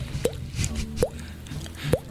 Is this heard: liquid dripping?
yes